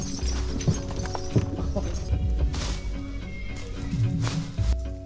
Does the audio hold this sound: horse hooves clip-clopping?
yes